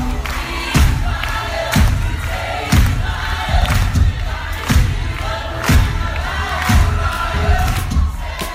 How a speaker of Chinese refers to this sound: 这是百老汇的掌声雷动